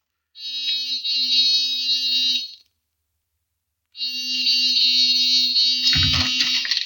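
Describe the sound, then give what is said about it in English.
A harsh electric door buzzer is pressed in the middle of the night, sounding twice: a steady two-second buzz, a pause, then a longer press that ends with a clattering knock or rattle. “Give the buzzer a punch.”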